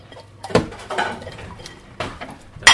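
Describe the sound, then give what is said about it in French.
Dishes and cutlery clatter as they are handled and put away into a drawer, with several sharp clinks and knocks spaced irregularly, fairly loud, the loudest clank at the very end. “Ça, ça va dans le tiroir. Troisième, deuxième tiroir.”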